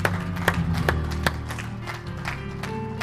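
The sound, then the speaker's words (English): An audience claps their hands in praise to the Lord after a prayer in a church discipleship class, a dense burst of applause with sharp individual claps standing out, steady over a low background hum. “Give the Lord a hand clap of praise today.”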